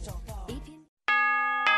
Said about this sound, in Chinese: 新年的钟声已经敲响，新年的日历已经翻开。二零一四已成过往，二零一五崭新开启